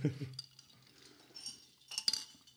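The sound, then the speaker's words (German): Glasses of blood-orange Aperol clink together in a toast, a bright ringing tap near the end, with a brief low murmur of voice at the start and quiet handling sounds between. “Dann Prost. Prost. Jetzt kriegt er erstmal hier schön ASMR-Content.”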